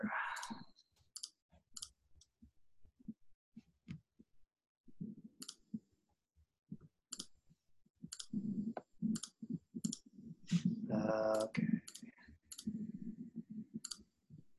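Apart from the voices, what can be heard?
computer clicking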